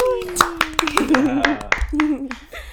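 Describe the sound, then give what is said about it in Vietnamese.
Brisk, irregular clapping from a small group welcoming guest Brian Tròn, sharp, with a voice cheering and talking loudly over it throughout. “Mọi người cùng trông ron và vỗ tay chào mừng Brian Tròn nào.”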